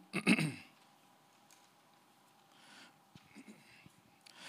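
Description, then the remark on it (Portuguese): A single short, gruff, fairly loud throat clearing right at the start by a speaker with a slight frog in the throat, then quiet with only faint rustling and small noises. “Eu estou meio com um pigarro e aí eu fiz a grande renúncia, né?”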